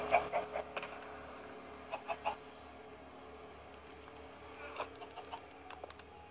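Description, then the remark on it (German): Soft, short clucking bursts from a video game chicken placed from a chicken spawn pop up irregularly, a few quick clustered clucks at a time, over a low steady background hum. “Eine Endertruhe, ein Huhn aufplatzieren, die Endertruhe öffnen.”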